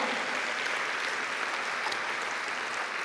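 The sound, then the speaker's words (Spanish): An audience claps steadily and densely as applause to the Lord, a sustained wash of many hands applauding together, with no clear pauses and faint voices mixed in. “Dale un aplauso al Señor, aleluya.”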